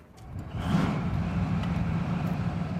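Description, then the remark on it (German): Leopard battle tanks in their most modern version roll off a train at the station grounds in Naburg, Upper Palatinate, their tracks screeching on the asphalt. There is a loud, steady low engine rumble with a throbbing drone and a broad grinding clatter from the tracks, with no voices. “Dann rollen die Panzer vom Zug, Ketten kreischen auf dem Asphalt.”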